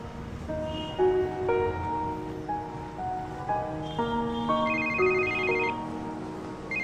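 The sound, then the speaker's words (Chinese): A phone ringtone plays a bright, steady melody of electronic tones, stepping up and down in pitch over a soft hiss, with no one speaking. “来，我接个电话。”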